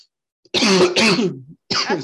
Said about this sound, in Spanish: le dio la tos de la impresión, del, del coraje, güey. Yo vi cómo te dio coraje. Pues, se, me levantó una pinche pelusa y me la tragué toda.